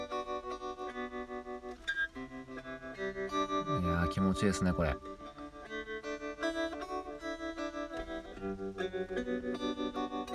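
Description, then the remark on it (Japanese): An electric guitar run through an effects unit rings out sustained, shimmering chords with a brighter, louder strummed burst midway, while a voice briefly speaks over the playing. “そんな感じで今日はエレキでお送りしていました。”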